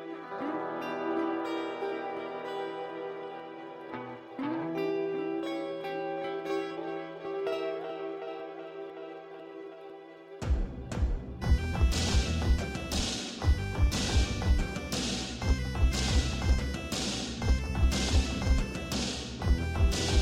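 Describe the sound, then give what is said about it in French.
Instrumental music from the indie video game Rogue Legacy: a calm, sustained melodic passage gives way midway to a louder, driving full arrangement with steady drum hits. No one speaks. “cet extrait sonore, c'est celui de Rogue Legacy, un petit jeu indé qui a pas mal fait parler de lui ces derniers jours et ces derniers temps.”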